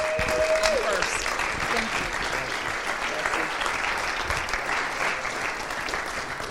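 Steady audience applause at a worship service for a couple coming up to the front: a dense, crackling wash of many hands clapping at an even loudness, with a brief tonal whistle near the start.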